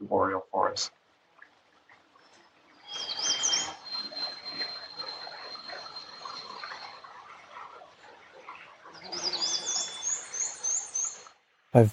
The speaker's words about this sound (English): Beavers smacking their tails on the ponds and warblers are, are very prevalent songbirds in the North Woods.